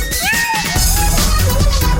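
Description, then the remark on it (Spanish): A short, gliding cat meow rises and falls near the start, followed by a louder stretch of music-like sound that fills the rest of the moment. “el gato más dormilón, más tierno y maullador.”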